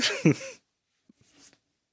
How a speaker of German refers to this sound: Oh, aber bitte huste am Mikro vorbei, ja? Wir wollen uns nicht bei dir anstecken.